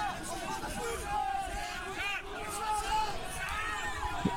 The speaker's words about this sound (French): Alors évidemment les gens hurlent, protestent.